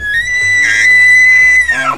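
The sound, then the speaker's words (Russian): A voice imitates a frantic, bellowing scream like the call of a maral deer: one loud, sustained high-pitched wail held for about two seconds, then dropping off at the end. “Она кричала так, как действительно кричат моралы.”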